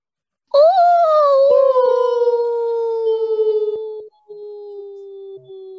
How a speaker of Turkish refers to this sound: Ben de biraz korktum. Sanki demin bazı sesler duydum. Evet, ben de onları duydum. Kartal sesidir onlar. Ormanda kartal ne arıyor? Ya böyle uluma sesi gibiydi sanki.